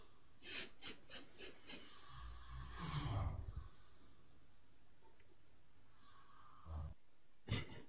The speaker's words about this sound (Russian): Так храпит аппетитно.